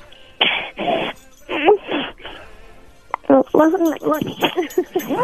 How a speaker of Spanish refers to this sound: Está arcando la señora.